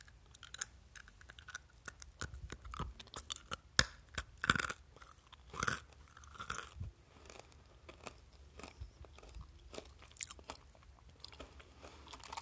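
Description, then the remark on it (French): Crisp crunching of peanuts from a jar being chewed for ASMR, a steady run of sharp cracks and softer grinding bites over about twelve seconds, with no talking. “Vraiment croquant sur les, sur les dents.”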